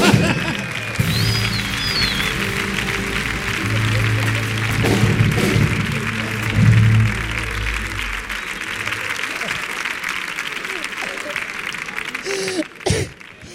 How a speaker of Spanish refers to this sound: ¡Fuerte el aplauso!